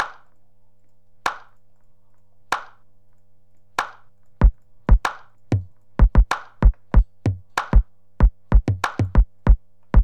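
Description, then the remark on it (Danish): A programmed drum loop with a relatively simple rhythm starts with sparse, evenly spaced claps from a small drum set to a clap sound, then a booming big drum joins, filling out a quicker, punchy rhythm of deep thumps alongside the claps, with no voices. “Så en stor tromme.”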